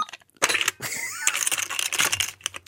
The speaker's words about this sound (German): Ich prüfe mal in der Zeit die Kasse. Ist genug Wechselkälte. Oh.